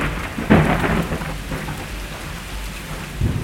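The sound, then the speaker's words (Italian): A thunderstorm with steady rain hissing throughout and deep rolls of thunder, a louder rumble near the start and another swelling toward the end, with no voices. “seduto su di un trono volante dove al di sotto ci sono ali che al loro battere emettono un suono pari a quello di un temporale.”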